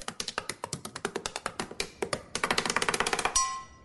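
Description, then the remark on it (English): A woman taps a pen rapidly and repeatedly on a desk in an office, in an uneven, drum-like rhythm that speeds up toward the end, fairly loud, with no talking. “Right up there with the woman who taps her pen like she's doing a drum solo at a sold out arena.”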